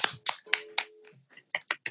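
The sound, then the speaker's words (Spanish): A short burst of sharp hand claps applauding an unplugged performance, about four loud ones in an uneven rhythm, then a brief lull before a few quicker, lighter claps. “Un aplauso para ese unplug.”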